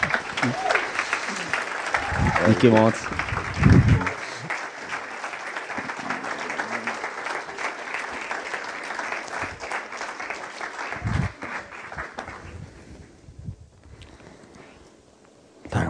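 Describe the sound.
An audience claps for the author of a book, steadily in a dense, loud wash of applause for about twelve seconds, then it thins out and fades away. A voice speaks briefly over it early on.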